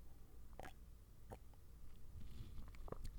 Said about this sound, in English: Hold on, I'm gonna drink some water really quick. Let's get this ASMR stuff going. Let's see if you can hear it.